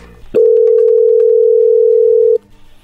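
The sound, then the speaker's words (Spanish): A steady, unbroken telephone tone hums at a single mid-low pitch for about two seconds as a call is placed, loud and continuous, then cuts off abruptly into quiet background noise. “Bueno, a ver, ahí vamos a marcarle a ver qué pasa.”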